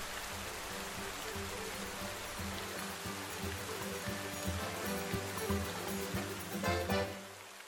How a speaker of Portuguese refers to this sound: Lá fora, chuva, chuva e mais chuva. Trovão, corisco, terras caídas, e vento e chuva, chuva e mais chuva.